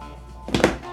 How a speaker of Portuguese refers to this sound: Esse som que vocês ouviram foi eu largando meu celular na mesa.